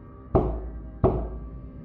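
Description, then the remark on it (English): Two solid knocks on wood, answering a yes-or-no question at a séance, about two-thirds of a second apart, each with a short resonant ring. Fairly loud, with no voices. “Give us one knock for yes, two knocks for no.”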